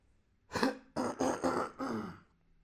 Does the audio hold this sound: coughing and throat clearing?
yes